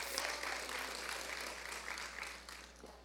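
A church audience claps continuously for about three seconds in a round of applause for the Lord, a dense, steady wash of many hands applauding together, fairly loud and fading slightly toward the end.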